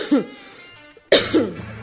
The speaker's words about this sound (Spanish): perdón, una tosecita en la mañana. Eh, parece que era lo que necesitaba. Uy, ahora salió la voz.